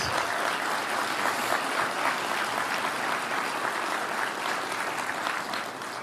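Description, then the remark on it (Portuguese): Sustained audience applause given for Jesus, a dense crackle of many hands clapping at a steady, loud level for several seconds with no voices standing out. “Deu uma forte salva de palmas para Jesus.”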